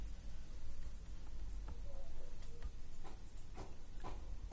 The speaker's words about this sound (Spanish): Ay, qué bonito, anda un pajarito en mi, techo y se escucha bien bonito. Como, este, como silba, qué bonito.